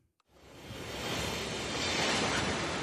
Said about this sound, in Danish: Det er tog. Det er rigtigt.